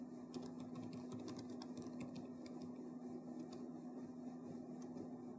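Irregular, unhurried keyboard taps: soft clicks that cluster in the first couple of seconds, then come more sparsely, over a steady low hum and background hiss. No one speaks.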